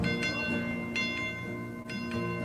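A bell rings with a steady series of strikes, roughly two per second, each adding to a sustained, shimmering metallic hum at moderate loudness. No voices are heard.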